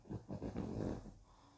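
A dog snorts, a quick series of rough, nasal puffs running together for a moment before trailing off, fairly quiet with no one talking.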